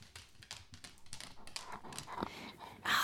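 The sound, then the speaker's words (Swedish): A dog named Vargen, being called over, patters across a hard floor in quick, irregular clicks, approaching and growing louder until a burst of brighter noise at the end. “Jag har fått några nya vänner och till och med skaffat en hund som heter Vargen.”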